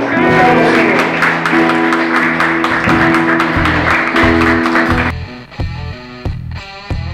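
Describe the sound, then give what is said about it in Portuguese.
A church audience applauds Jesus loudly and steadily over live music with a pulsing beat. After about five seconds the clapping stops and only the sparser music continues. “Aplauda Jesus, igreja.”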